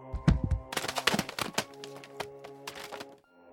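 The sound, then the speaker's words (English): A few heavy books are knocked off bookcase shelves when someone steps back into the bookcase, tumbling down in quick succession: a couple of deep thuds followed by a scatter of sharp slaps and clatters, over a faint sustained musical hum. “I stepped back into another bookcase, knocking a few books off the shelves.”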